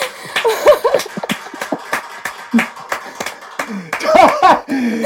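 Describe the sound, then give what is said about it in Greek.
A burst of sharp hand clapping, with a quick uneven rhythm of claps running through the whole stretch, mixed with laughter and lively voices around it. “Ε, ε, να ακουστεί θέλω το χειροκότα”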